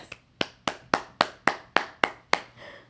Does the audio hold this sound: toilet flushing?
no